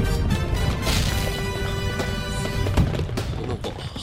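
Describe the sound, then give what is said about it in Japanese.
A fireworks sound effect: a dense, steady wash of crackling and popping with scattered sharper bangs, loud and continuous throughout, with no voices. “なんか花火か花火がありがとうございますいやすごくないですかこれ”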